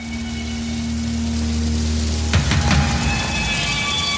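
Steady rain hisses over a low, droning rumble, with a couple of sharp hits around the middle, like the opening of a heavy metal track before any instruments come in.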